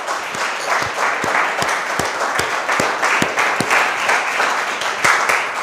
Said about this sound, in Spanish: Amén. Denle un aplauso gigante a Dios. Vamos.